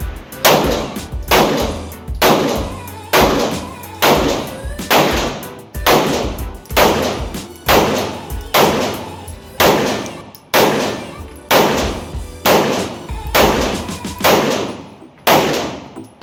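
A long series of loud, sharp gunshots from an AR-15 rifle at a shooting range, fired at a steady pace of about one per second, each crack ringing out with a short echoing tail, around fifteen shots in all.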